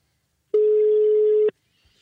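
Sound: telephone ringing tone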